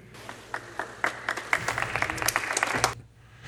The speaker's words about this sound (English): they pipe in the applause? I love no, uh, yeah, they did because it was empty.